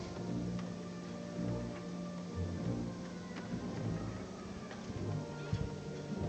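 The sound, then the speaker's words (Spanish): Metal tassels on the swaying canopy fringe (bambalina) of a processional float clink and tick in a steady, jingling patter over a low rumbling background with no clear talk, on Palm Sunday 2023 in Jaén at 11:31 in the morning. “Escuchando la bambalina igual que yo.”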